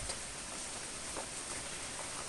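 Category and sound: nature, heavy rain falling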